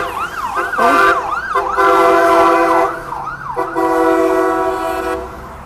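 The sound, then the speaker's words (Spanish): A loud ambulance siren wails as it passes by, in quick, repeating rise-and-fall sweeps, layered over a steady blaring horn tone, with no voices. “Oye, acabo de pasar una ambulancia muy ruidosa.”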